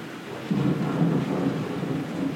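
Low, rolling thunder rumbles steadily beneath a constant patter of rain, the storm swelling a little louder after the first half second and holding on without any voices.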